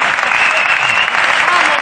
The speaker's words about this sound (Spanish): Eh, pues, eh, joder, un aplauso para los recoger pelotas, joder. Gracias, chicos. Gracias.